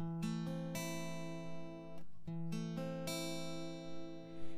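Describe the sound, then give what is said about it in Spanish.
An A minor chord played as an arpeggio, its notes plucked one after another and left ringing, with the pattern repeated twice, clear with no talking. “Si lo arpegiamos, suena así.”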